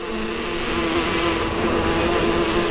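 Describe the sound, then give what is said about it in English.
A dense, droning buzz of hornets, each the size of a hummingbird, attacking a bee hive, many wings humming together in a steady, loud drone that never lets up, with no voices. “The army is basically between 3 and 50 hornets, the size of hummingbirds and each one has jaws that can decapitate a bee in a single bite.”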